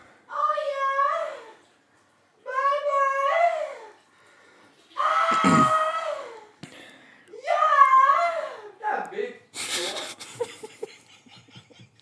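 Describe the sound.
A voice imitates a lion roaring: four drawn-out, strained roars with short pauses between them, loud, ending in a rougher, noisy burst.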